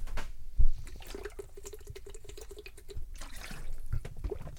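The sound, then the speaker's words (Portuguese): Close-up liquid sounds of someone drinking water, with soft sloshing, a few low gulps and small drips spread over a few seconds, with no talking. “Ou seja, epá, tenho que beber mais água, malta, estou-me a sofrer.”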